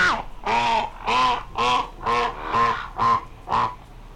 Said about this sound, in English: Do you think that if we got a record player and some speakers and went to the pond and played a really slow version of the duck calls, do you think the ducks would be like, "What is going?"